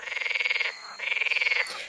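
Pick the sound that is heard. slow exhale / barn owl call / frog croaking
frog croaking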